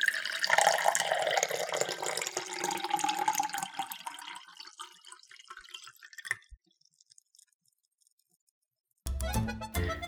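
A steady stream of a person urinating splashes loudly for several seconds, then thins and tapers into a few final drips before silence, broken at the end by a sudden burst of noise.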